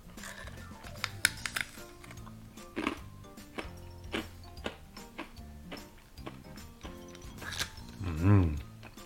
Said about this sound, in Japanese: 開けちゃうよ。赤エビせんべい。うまそう。まず一つ目。ここから咀嚼音が入ります。いただくよ